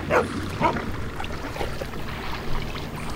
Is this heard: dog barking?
yes